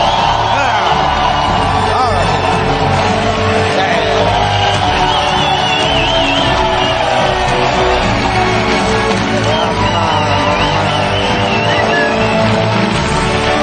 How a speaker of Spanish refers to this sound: Esa ovación.